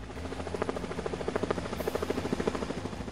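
Mexican Navy helicopter rotor blades beating in a steady, rapid thudding rhythm with a low engine drone beneath, loud, with no voices, over a ballpark during a show for the Olmecas de Tabasco mascot at a Mexican Baseball League game against Tigres de Quintana Roo.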